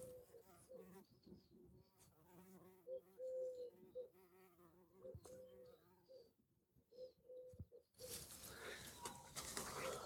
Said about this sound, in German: ich versuche dabei mir die Hummeln aufzunehmen vom Klang.